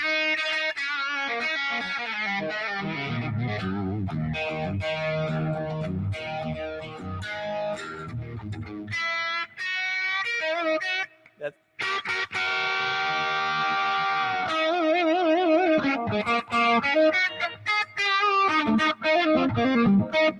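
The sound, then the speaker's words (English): A loud, distorted electric guitar plays a bluesy dominant seventh shuffle of chord riffs with a gritty, saturated tone, running almost continuously except for a brief break midway. No voices. “And when you hit that dominant chord, that seven, it's so rock and roll. And that's where that whole blue shuffle stuff comes from.”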